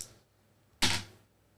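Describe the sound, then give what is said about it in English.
A single short clatter of dice hitting a hard surface, fairly sharp, fading quickly back into near silence with no one talking. “I grabbed the wrong dice.”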